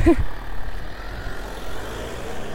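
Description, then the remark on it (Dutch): A car rolls by on a road through a nature area, nearly hitting a small dog, a steady low engine and tire rumble filling a couple of seconds, with a brief tonal sound at the very start. “Hondje werd bijna aangereden.”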